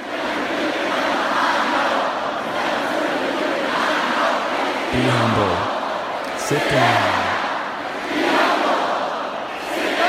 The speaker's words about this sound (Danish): Pludselig så, øh, så slukker han musikken, og så begynder alle seriøst bare at rappe for ham. Altså rap resten af sangen.